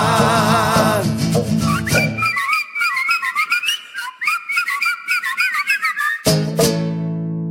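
Someone whistles a quick, warbling little tune with their mouth for about four seconds, clear, framed by brief bursts of music before and after.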